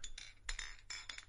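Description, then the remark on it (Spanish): Glasses clink together several times in quick, uneven succession in a toast. The bright chimes are fairly soft, with a faint background hum and no voices. “pero solamente un chin brindando un chinchín, por favor.”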